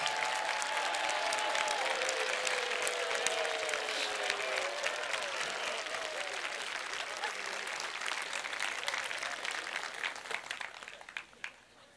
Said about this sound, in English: So if you're a freshman and you're out here, why don't you stand? And all the rest of us, let's applaud and cheer them on. Welcome them.